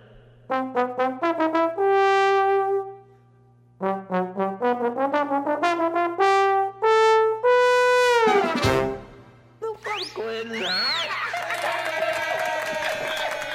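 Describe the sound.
A recorded song by a small band: bursts of quick, staccato repeated notes climb to long held tones, then give way to a swooping, wavering passage. A voice speaks briefly amid the music.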